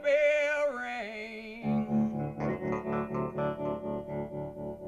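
A rock song plays with no talking. It opens on sustained, wavering distorted tones, then a steady, driving beat kicks in with pulsing rhythmic chords at a fairly loud level.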